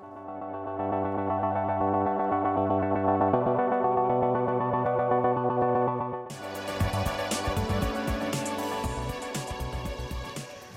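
A pop song plays on its own, opening with steady, effects-heavy synth chords before the full band kicks in around the midpoint, brighter and louder with driving drums.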